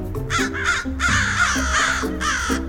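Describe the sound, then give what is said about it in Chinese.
A flock of crows cawing loudly at sunset as they come out to look for food, harsh raspy calls overlapping in quick succession, about half a dozen bursts running almost without a break. “狐狸被一群乌鸦的叫声吵醒了。”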